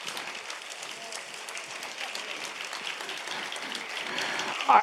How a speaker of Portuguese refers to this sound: Dê para Jesus mais uma forte, forte salva de palmas.